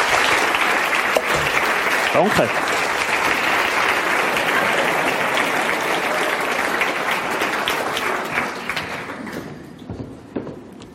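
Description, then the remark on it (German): Sustained applause from an audience fills the room, a dense wash of clapping that holds steady for most of the time before thinning and fading out near the end, with a brief spoken word. “Ein riesen Applaus”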